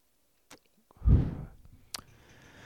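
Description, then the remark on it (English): A quiet puff of air drawn through the lips as someone puffs on a cigar to keep it going, opened by a small wet click and followed by a soft breathy rush that fades, then another faint lip smack. No one speaks. “Say a couple of puffs, keep the cigar going.”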